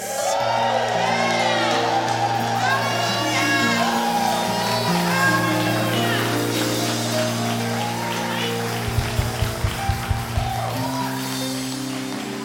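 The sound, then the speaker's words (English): A crowd cheers and shouts loudly and continuously, with whoops and high excited voices over a sustained low musical drone, and a few sharp claps near the end. The crowd is making noise in answer to a call for the people who are free. “I want to see the people that are free make some noise.”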